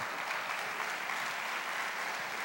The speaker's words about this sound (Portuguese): Você pode aplaudir ao Senhor bem forte.